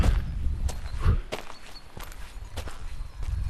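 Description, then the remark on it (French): Footsteps crunch over rough ground at an uneven, labored pace while hiking up a steep mountain slope in the Oriège valley, at about 2000 metres altitude, each step a short scuff, with a low rumble of wind or handling noise underneath and no talking. “Il y a de la marche, la pente est particulièrement sévère.”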